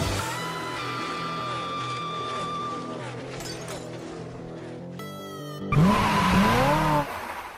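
Roaring race car engines rev and whine with shifting pitch, then a louder burst of squealing tires and a sharp sweeping screech near the end before it cuts off.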